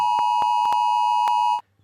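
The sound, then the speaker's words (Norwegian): A Norwegian mobile phone emergency alert test tone, played on a morning radio show as a test ahead of the nationwide test on 14 June: a loud, steady high-pitched electronic tone with harmonic overtones, punctuated by several brief clicky pulses, cutting off abruptly after about a second and a half. “Ti sekunder med den lyden der får vi alle på mobiltelefoner.”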